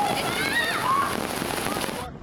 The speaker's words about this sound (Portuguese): Na cidade portuária de Marsella, as fortes chuvas provocaram alagamentos. Em alguns locais, a força da água chegou a derrubar pedestres.